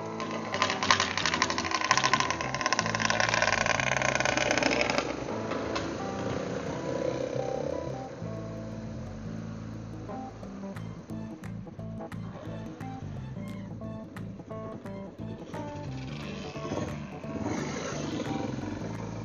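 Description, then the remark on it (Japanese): A small 50cc two-stroke motorbike engine revs loudly, a rough buzzing roar that eases down after a few seconds into a rattling, pulsing idle before picking up again. “50cc のくせしてさ、ツーストってさ、だいたい100キロくらい出んじゃん。”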